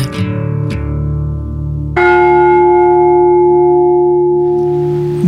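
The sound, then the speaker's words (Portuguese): The Estrela carillon bells ring loudly with no one talking, about three strikes whose bright, layered tones overlap and hum on, the last one swelling fuller and lingering to the end. “Mas como disseram que era um gongo, eu não sabia que era um carrilhão da estrela.”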